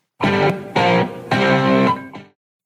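Three loud, distorted electric guitar notes open a rock riff, each held for about half a second in a steady rhythm, followed by the brief start of a fourth note that quickly cuts off.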